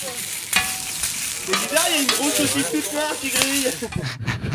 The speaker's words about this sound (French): Et on espère qu'on a cette petite saucisse qui crépite à donner faim aux auditeurs.